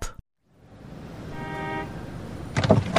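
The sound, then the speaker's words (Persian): A taxi drives through city traffic, its engine and road noise swelling steadily, with a brief tonal horn-like sound midway and a few sharp clunks near the end. “قبلش بریم با همدیگه گشتی تو شهر بزنیم سوار تاکسی بشیم بریم یه دوری بزنیم و بیایم موافقی بله حتما”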